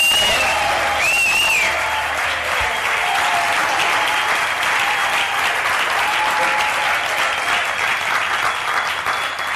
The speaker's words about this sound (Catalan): A l'estudi estem acostumats a llançar-los enllaunats, però penso que ara són prous com per fer com un aplaudiment o uns quants crits se sentin arreu del territori. Ho podem provar? Un, dos